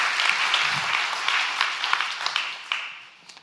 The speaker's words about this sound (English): But here's what, here's what I want to ask you to do in just a second. We're going to clap again.